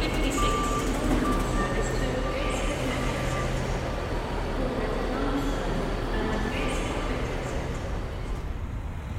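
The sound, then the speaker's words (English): A busy street in Newcastle with a steady roar of traffic and engines and shoppers, while a truck's reversing alarm beeps repeatedly in the mix and faint voices murmur in the background. “traffic, the shoppers, the wheeze of our breath, the shuffle of our feet, the clatter, the thud in our eardrums as we climb our hill.”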